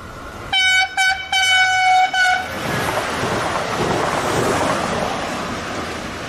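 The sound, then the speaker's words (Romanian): A train horn sounds in several loud, closely spaced blasts, then gives way to the steady, rushing roar of a passing diesel train built at the Electroputere factory in Pașcani. No one speaks. “Tren diesel făcut la Pașcani Da, fraților, la noi, la Pașcani La electroputere Pașcani Arată așa”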